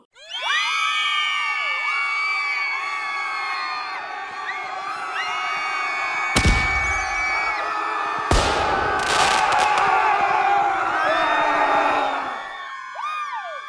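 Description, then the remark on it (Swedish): A live crowd cheers and whoops with high, overlapping voices and steady applause, holding loud for about twelve seconds before tapering off, punctuated by a couple of sharp bangs partway through. “In med applåder!”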